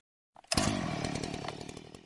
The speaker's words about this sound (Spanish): Será momento de coger la sierra mecánica y cortarle las dos manos.